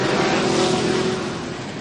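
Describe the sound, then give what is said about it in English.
Race car engines roar past down the front straight, cars running nose to tail out of turns three and four, a loud, dense drone with a steady whining tone that eases off slightly toward the end. No one speaks. “Coles working his way through three and four down the front straight right to Underwoodski running nose to tail down the front straight.”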